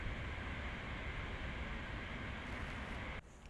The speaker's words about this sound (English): Sorry, I wanted the train to go by.